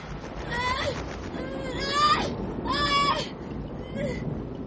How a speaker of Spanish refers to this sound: ¿Qué son esos gemidos, Mannerheim?